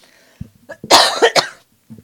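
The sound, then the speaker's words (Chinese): A person with a sore throat coughs in a short, harsh burst of two or three loud hacks with a throaty, raspy quality, preceded by a few faint throat sounds and followed by a brief quiet breath. “今天喉咙很不好，一直想咳嗽。”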